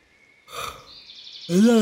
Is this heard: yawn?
yes